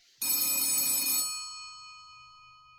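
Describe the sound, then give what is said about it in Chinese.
A telephone bell rings in one loud, bright metallic burst lasting about a second, then its shimmering tones fade away over the next second or so. No voices are heard. “就接到了一通神秘的电话。”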